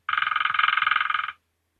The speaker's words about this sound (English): Sorry, the answer I wanted was a woodpecker.